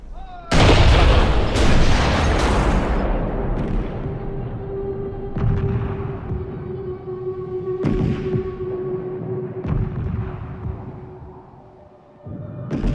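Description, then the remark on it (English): Huge German Krupp cannons firing one-ton shells to crush fortresses give a series of deep, booming blasts, three in quick succession and then several more spaced seconds apart, each loud and rolling off into a long rumbling echo. “To crush the fortresses, they must bring in their huge Krupp cannons that fire one-ton shells.”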